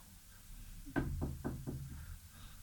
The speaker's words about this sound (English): A minute later, there's a knock on the door at the valve.